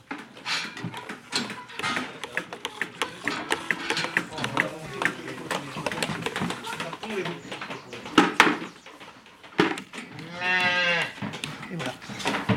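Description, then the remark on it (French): A young calf, born on Sunday, lets out a long, wavering moo near the end, after several seconds of busy, shuffling, slurping noises as it drinks on its own for the third time, with voices in the background. “c'est euh, la troisième fois qu'il boit tout seul. Il est né euh, dimanche.”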